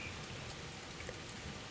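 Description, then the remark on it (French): Steady rain pours down during a thunderstorm, heard through an open window, in a dense, even hiss of drops pattering on surfaces, with no thunder or voices breaking through; a continuous, moderately soft wash of storm rainfall. “C'est une ambiance euh, un petit peu particulière aujourd'hui dans ce podcast avec l'orage et la pluie mais je trouve que ça donne quelque chose de, plus en fait.”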